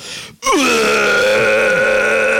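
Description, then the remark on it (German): A voice imitates drunken bellowing into a wireless microphone during a soundcheck for the mixing desk: after a brief pause, one loud, raspy, sustained yell that slides down in pitch, then holds steady for about two seconds. “und das war wirklich so Schrammel, Schrammel und er war nur am Grölen.”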